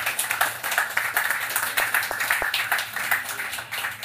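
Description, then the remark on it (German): An audience breaks into steady applause for the digital editorial team covering audio, video and social media, many hands clapping in a dense, crackling wash that holds at a fairly even level for about four seconds, with no voices over it. “Ich glaube, auch das ist mal ein Applaus wert.”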